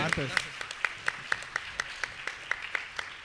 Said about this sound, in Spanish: Gracias, gracias. Un fuerte aplauso para todas sí, para todos los que han participado.